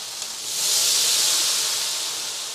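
Meat substitute flakes sizzling steadily in a frying pan, a loud, continuous hiss that swells after a moment and holds, with no voices.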